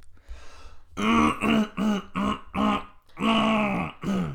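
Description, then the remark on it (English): A run of loud throat clearings, about six voiced rasping bursts in quick rhythmic succession after a faint breathy start, with no talking. “Clearing your throat or testicles?”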